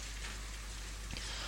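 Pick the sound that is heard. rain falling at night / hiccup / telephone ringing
rain falling at night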